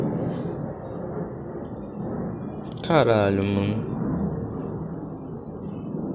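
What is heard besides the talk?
airplane flying overhead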